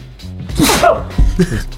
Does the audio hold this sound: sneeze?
yes